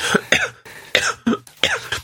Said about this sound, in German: Jetzt kommt der Husten zurück. Oh je, oh je. Jetzt kommt alles.